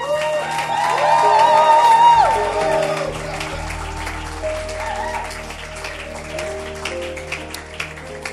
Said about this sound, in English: Clap for them.